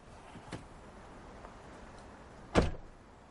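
A parked minivan's door opens as a passenger gets out slowly: a couple of faint clicks, then one sharp, loud latch clunk that fades quickly over a low steady hum. No one speaks.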